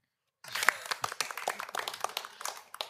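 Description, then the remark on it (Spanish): A round-of-applause sound effect: a burst of applause starts abruptly and continues steadily, many overlapping hand claps forming a dense crackling patter at moderate volume, with no voices. “Como ronda de aplauso, vamos a verificar esta información aplaudes y todavía no te queda claro qué pasó ese día.”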